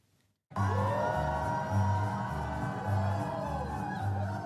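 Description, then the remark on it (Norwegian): A dense crowd of shoppers storming stores in New York in search of Black Friday bargains roars and cheers continuously, with whoops and shouts rising over a steady wall of excited voices after a brief silent start. “Jublende handlende stormet flere butikker i New York denne helgen, på jakt etter Black Friday-kupp.”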